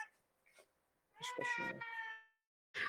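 A cat lets out one long, loud, drawn-out meow, with a few softer, briefer noises before it and a short burst of sound right at the end.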